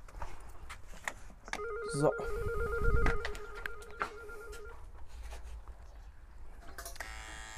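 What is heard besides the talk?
doorbell ringing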